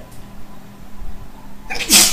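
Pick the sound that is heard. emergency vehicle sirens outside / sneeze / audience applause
sneeze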